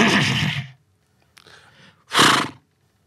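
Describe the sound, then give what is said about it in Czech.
A person vocally imitates a horse's whinny in two loud, breathy bursts separated by a brief pause and a softer rasping sound. “Umíš koňsky? Dorozumíváš se řechtám?”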